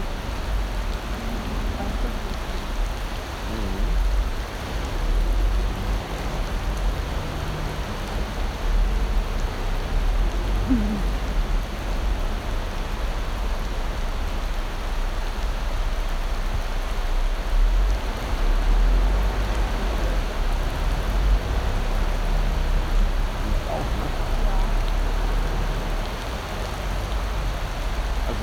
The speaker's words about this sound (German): Ich wusste nicht, dass das ein Orkan ist. Ich habe gedacht, es regnet halt ein bisschen wie normal.